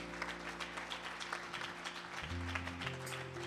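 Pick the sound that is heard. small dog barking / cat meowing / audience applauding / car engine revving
audience applauding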